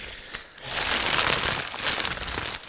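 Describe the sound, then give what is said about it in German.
Newspaper pages rustle and crinkle continuously for a couple of seconds, a dry, papery crackling that swells and stays fairly loud, with no talking over it. “Äh, auch, hier wieder, auch hier wieder übrigens äh, Tipp am Rande: Hier könnte Ihre Zeitung rascheln.”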